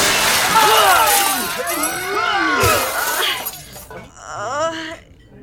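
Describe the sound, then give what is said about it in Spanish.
A loud, chaotic crash as a group flips over in the air and falls among tables, things tumbling and clattering, with a glassy shattering edge, mixed with sliding, whine-like vocal cries throughout and a final brief yelp after a short pause. “El sistema de vectores involucrado en el rescate de la rebelde dislocóle ambos hombros a Tururú y provocó que todos dieran una vuelta de campana en el aire que terminó con una aparatosa caída en medio de las mesas.”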